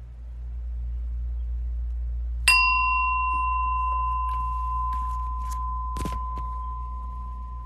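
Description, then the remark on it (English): A single meditation bell is struck once, ringing out clear and bright, then holding a long sustained tone that fades very slowly over a low steady hum. No one speaks. “So I'm going to ring the bell now.”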